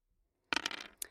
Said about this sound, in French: On peut lancer les dés là Allez-y, on va bien voir ce que vous choisissez pour continuer l'histoire.